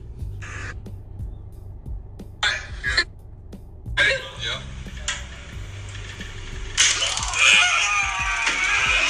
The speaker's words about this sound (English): The unknown officer deploying the taser does hit the recruit. However, one of the other nodes also strikes the field training officer and thus tases them both.